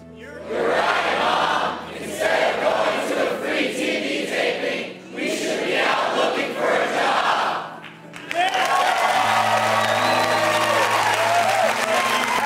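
A studio audience cheers, shouts and applauds loudly in sustained waves, briefly dipping midway before surging again, with a steady tonal hum joining the roar toward the end.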